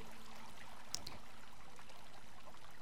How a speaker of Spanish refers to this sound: Y este agua, ¿no? Nadie ignora todo lo que arrastra a flor de agua o semisumergido, una gran crecida.